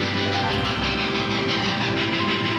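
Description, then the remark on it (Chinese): A train crosses a bridge over a river, rumbling past in a steady, dense roar with a low hum and faint rhythmic rattling of wheels, continuous for the whole stretch with no voices. “火车则依然会驶过河上的大桥。”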